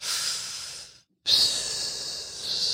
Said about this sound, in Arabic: صوت النفس يلا فكيت السنوركل بسم الله نزلت